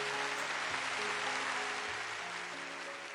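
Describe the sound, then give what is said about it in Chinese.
A steady round of applause inviting two guests to greet the listeners, many hands clapping in a dense, continuous wash for about three seconds at an even level, with a faint low tonal hum underneath and no talking. “好的，首先我们掌声邀请二位跟听众朋友们打一声招呼。”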